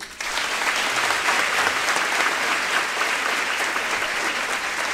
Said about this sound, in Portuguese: Pode aplaudir.